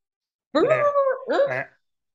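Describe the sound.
A person vocally imitates a dog named Jaeger barking right through a shock collar, making two drawn-out, whiny bark sounds in quick succession, fairly loud, with silence before and after.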